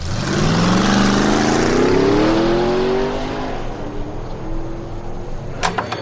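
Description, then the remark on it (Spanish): The engine of a cheap car in Monterrey runs loudly and revs up, its pitch climbing steadily over a few seconds before settling into a steady hum, with a couple of brief clicks near the end. “Agarré el carro más barato, güey.”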